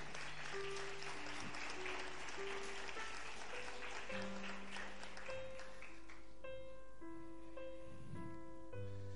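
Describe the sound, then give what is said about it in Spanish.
An audience applauds loudly and steadily, a dense wash of clapping with sustained musical tones, like an organ or keyboard, playing beneath it. “Aplaude fuerte ahora.”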